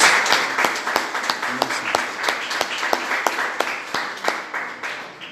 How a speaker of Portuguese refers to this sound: E pode aplaudir a palavra de Deus, em nome de Jesus. Glória a Deus.